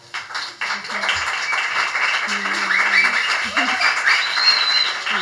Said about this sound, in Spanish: Así que un fuerte aplauso, por favor.